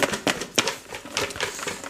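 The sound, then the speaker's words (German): A box is shaken, its contents rattling in quick irregular bursts of sharp, clicky impacts at moderate loudness, with a few stronger jolts standing out; no one speaks. “Liebes Publikum, ich werde jetzt hier mal die Kiste nochmal schütteln.”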